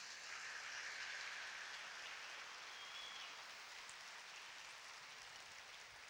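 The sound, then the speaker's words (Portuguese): A church audience applauds the Lord, the King of Kings, in a dense, steady wash of clapping that holds at an even level for about six seconds, with no voices. “Aplauda bem forte o Rei dos Reis.”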